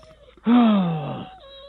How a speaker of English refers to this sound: What is that noise in the background? Baby crying,